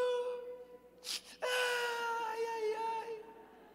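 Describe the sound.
A single voice imitates the widows wailing and weeping around Peter in a room, as told in a sermon: a wavering moan, a sharp breathy sob, then a long, drawn-out crying wail that trails off.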